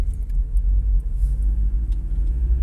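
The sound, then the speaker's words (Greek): A steady, deep engine rumble fills the inside of a car, a low continuous drone that holds even throughout with no talking, faint higher ticks flickering now and then above it. “Λοιπόν μόλις μπήκα στο αμάξι”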